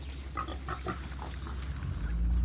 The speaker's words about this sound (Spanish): Has oído bien, una granja de cerdos.